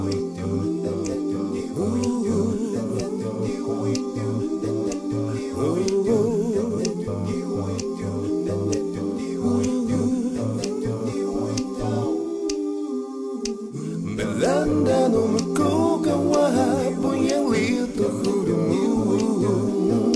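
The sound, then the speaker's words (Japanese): A song built from about twenty stacked, overdubbed recordings of one singer's own voice singing in dense harmony over a steady pulsing low rhythm; it briefly drops out near the end, then returns fuller and louder. “本当に20人ぐらい僕がいると思いながら聞いてもらったらいいかなと思います”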